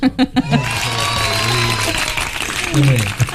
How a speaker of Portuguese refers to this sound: Por favor, palmas para ele. Palmas